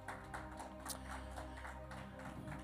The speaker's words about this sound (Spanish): Amén. Amén. Puede sentarse, darle un aplauso al Señor, como quiera.